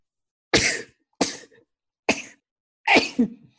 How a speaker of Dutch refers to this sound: Ik moet niezen.